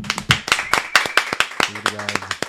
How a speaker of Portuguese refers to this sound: hoje a gente está recebendo aqui, recebam com forte aplauso,